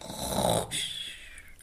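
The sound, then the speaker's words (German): A single heavy, rumbling snore, rough and guttural, followed by a breathy hissing exhale that trails off. No one speaks. “Hierauf legte er den Kopf auf ihre Knie und schlief und schnarchte wie der Donner.”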